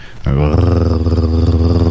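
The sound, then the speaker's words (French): A voice imitates a humming noise described by witnesses, a deep, steady, rumbling drone like a purring cat, that starts abruptly after a brief pause and holds for nearly two seconds at an even loudness. “c'est vraiment comme un, un bourdonnement, un bruit sourd. Mm. Comme un, chat qui ronronne.”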